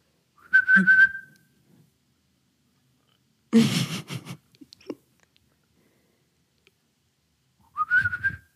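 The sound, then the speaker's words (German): Two short whistled phrases imitating a blackbird's song, each a bright warbling burst, separated by a breathy noisy rustle and a few seconds of silence. “Komplone Amsel, so ganz spontan.”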